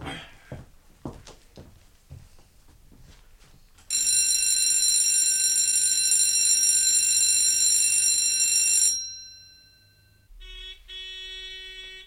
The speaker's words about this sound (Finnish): Kokous on päättynyt. Vahtimestari soittaa oppilat sisään.